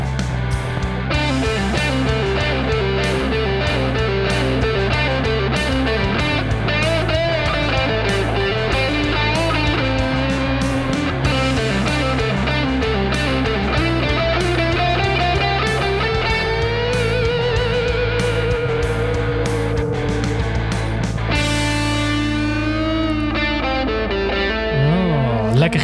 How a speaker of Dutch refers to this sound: gitaarspel. Wie heeft dat gedaan?